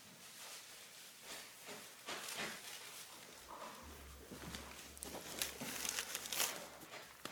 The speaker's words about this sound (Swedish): En plastpåse.